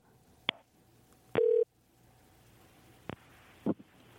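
A telephone being dialed to call a listener during a live broadcast: a few sparse electronic beeps at irregular intervals, one held slightly longer than the rest, clear over a quiet background with no talking.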